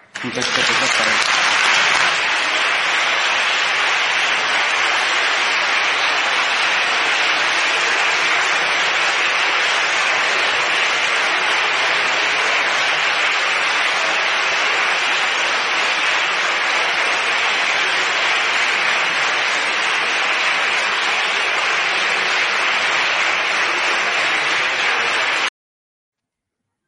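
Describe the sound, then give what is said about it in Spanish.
Sustained applause fills a parliamentary chamber, a dense, steady wash of many hands clapping at an even loudness for about twenty-five seconds before stopping abruptly. “Eh, me imagino que la presidenta de la Asamblea se habrá también puesto de pie a aplaudirla, porque después de las palabras que le dijo Monasterio, en fin.”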